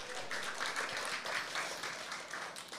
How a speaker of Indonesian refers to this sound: Yang mau coba sorak-sorai dulu buat Tuhan Yesus. Haleluya.